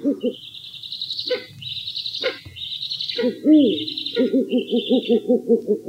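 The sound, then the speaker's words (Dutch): Eurasian eagle-owl contact calls: a steady series of low, rhythmic pulsed notes overlaid with drawn-out high-pitched squealing calls, repeating several times with no talking. “Kijk, deze oehoe wou ik ook nog eventjes laten horen.”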